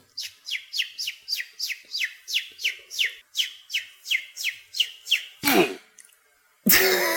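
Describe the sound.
A person whistles a quick, steady series of about fifteen high, downward-sliding chirps in imitation of a bird, then a short breathy burst and a loud rush of noise follow.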